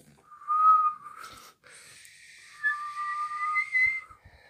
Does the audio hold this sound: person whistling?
yes